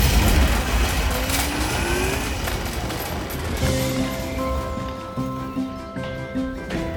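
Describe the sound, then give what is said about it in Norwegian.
A car speeds off with a loud rushing roar and a rising engine whine over the first couple of seconds, then steady sustained tones continue as the noise gradually eases. “Hopp inn da, folkens så kjører vi.”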